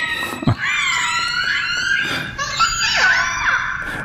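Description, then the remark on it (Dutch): A series of high, squealing orca calls with rising and falling whistles and harsh pulsed screeches, overlapping continuously with no talking; the orcas make the sounds through their blowhole and their melon (forehead). “Dit zijn orka's.”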